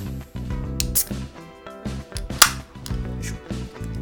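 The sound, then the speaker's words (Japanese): A can of Super Dry beer is cracked open with one sharp pop and a brief fizzy hiss, over steady background music with no one speaking. “最初はねスーパードライの方からねついで飲んでいきたいと思いますそれではね缶開けていきますも通りいい音が開くでしょうか”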